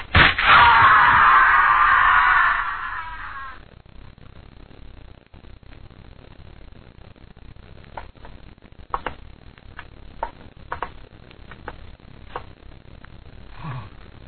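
A woman screams loudly and shrilly for about three seconds as she trips and falls over a terrace rail on a mountain, a drop of a good 200 feet onto solid rock; the cry drops away abruptly, leaving a low hush broken by scattered faint clicks and knocks.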